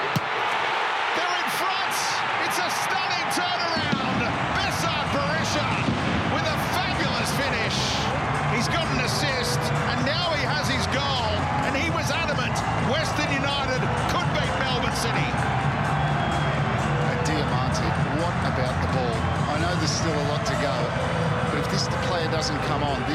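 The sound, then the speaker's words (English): A large stadium crowd at a football match buzzes and roars steadily for player Lachie Wales, a dense wash of voices that swells after the first few seconds and never lets up, with occasional sharper shouts and thuds. “Diamanti crowd buzzes for Wales.”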